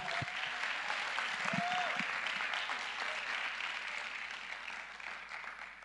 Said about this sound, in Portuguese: Então, você pode celebrar Jesus com palmas? Vamos.